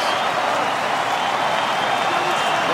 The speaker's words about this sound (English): crowd, hear the crowd. They're, they're trying to will Hogan back into this match with Angle the aggressor.